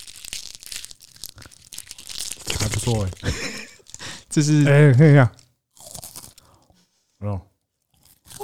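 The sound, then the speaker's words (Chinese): A Ferrero Rocher (金沙) hazelnut chocolate candy being unwrapped and bitten, with crisp crinkling and crunchy crackles that come in short bursts, while people chat and exclaim in between. “我刚讲了，我刚说这是金沙的声音。”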